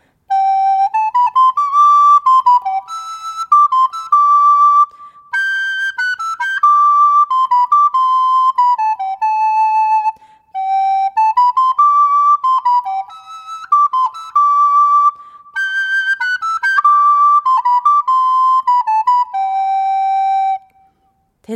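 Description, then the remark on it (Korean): A clear, high whistled tune of a simple children's song, played alone in four steady phrases of about five seconds each, with brief pauses between them and no talking. “뭔가 대충 그냥 불 수 있는 걸 불어볼까, 그냥?”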